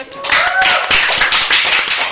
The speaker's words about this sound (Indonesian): Uh, keren sih. Tepuk tangan dong,